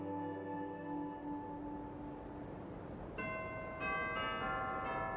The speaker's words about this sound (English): At midnight, the bells of the Old Trinity Church in lower Manhattan exalted the full, rich chimes in a joyous peal. The sweet tones echoed throughout the dark and otherwise silent streets